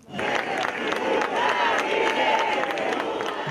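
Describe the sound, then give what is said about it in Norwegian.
A large crowd of protesters in São Paulo, Brazil, shouts slogans against President Bolsonaro on the anniversary of the 1964 coup, a loud, continuous roar of many voices with rhythmic bursts of chanting and scattered claps running through the whole stretch. “Demonstranter i Sao Paulo roper slagord mot presidenten på årsdagen for kuppet i Brasil i 1964.”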